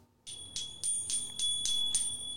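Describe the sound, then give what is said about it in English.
A small bell rings rapidly in a quick series of about seven bright, metallic dings, clear, with a sustained shimmering tone between strikes and no voices. “Give me the bell one more time.”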